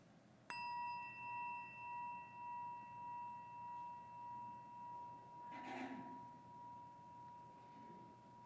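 A single meditation chime is struck once and rings on alone, its clear tone slowly wavering and fading over several seconds with a faint rustle partway through.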